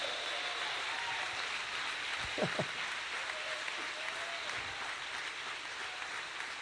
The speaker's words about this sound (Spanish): Y el aplauso fuerte para el rey.